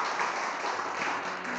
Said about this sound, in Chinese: 我们把掌声给我们的神，哈利路亚。